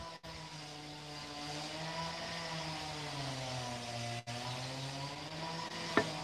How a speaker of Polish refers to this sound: Słyszeliście? więc, więc dzisiaj z odgłosów natury to dzisiaj drwale będą naturalnie tam borować te drewno, drzewo, czy ciąć, czy co tam.